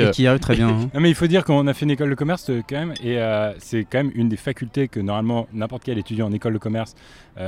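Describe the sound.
Keys clink and tap against a beer bottle as it is pried open, a few small, sharp metallic clicks scattered beneath steady conversation and a brief laugh.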